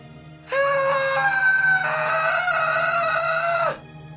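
A woman's loud, unbroken scream holds for about three seconds at a high, strained pitch, wavering slightly before cutting off abruptly. No talking accompanies it.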